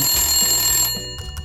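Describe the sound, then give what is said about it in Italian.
A telephone rings as a call is placed to the police, with a bright, steady electronic tone lasting about a second, then cuts off into a quieter pause with faint noise. Clear, no voices. “siamo riusciti a intercettare e a tradurre la telefonata, esattamente, sentite.”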